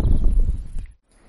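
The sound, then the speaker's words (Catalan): Loud, rumbling wind blowing today at Ullastret buffets the microphone outdoors for nearly a second, a dense low roar with rough gusty texture, then drops abruptly to near silence. “El vent que bufa avui a Ullastret ens ha obligat a fer un petit canvi d'ubicació.”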